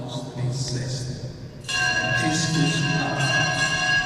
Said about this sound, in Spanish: Acaba de terminar de leer esta carta apostólica del Papa Francisco, suenan las campanas de la Catedral de Tarragona y en estos momentos están descubriendo esa imagen